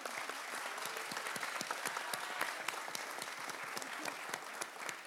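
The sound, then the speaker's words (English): An audience applauds steadily for several seconds for a discussion panel at a performing arts center, a dense patter of many hands clapping at an even, sustained loudness with no voices on top. “And uh, first, let's give a, a round of applause to our entire panel here.”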